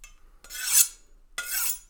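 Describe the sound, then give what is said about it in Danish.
Two rasping strokes of a knife blade being sharpened, each a bright, hissy scrape that swells and fades over about half a second, with a short pause between them. No voices. “Jeg, uh, I'm just sharpening my blade.”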